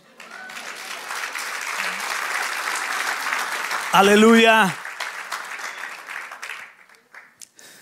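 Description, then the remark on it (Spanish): An audience claps steadily for about seven seconds, a dense, even wash of applause, with a voice shouting out briefly in the middle before the clapping thins and fades out. “Porque Dios celoso, De un aplauso.”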